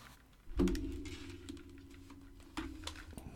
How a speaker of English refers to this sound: I'm wearing the headphones I said I wasn't going to wear and I'm going to take them off now. Hopefully it doesn't make too much noise.